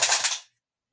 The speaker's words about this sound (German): Und ihr wart live dabei, wie mir eine Kassette runtergefallen ist.